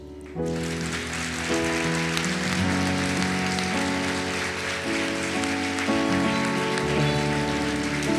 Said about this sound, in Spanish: Y por eso, como ustedes son la corona de la creación, entonces yo les quiero pedir algo ahora mismo y es que ustedes, todas, pero unánimes y fuertes, se den un aplauso.